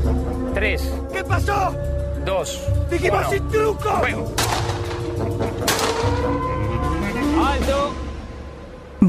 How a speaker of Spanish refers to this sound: Nelly y Vanegas le disparan.